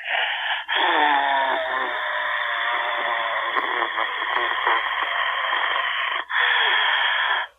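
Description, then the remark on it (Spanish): A voice imitates eerie, raspy breathing, drawing out long hoarse wheezing breaths with a brief pause before a final rasp, no words spoken. “mucho mi voz para la cosa de la respiración esto, así miren.”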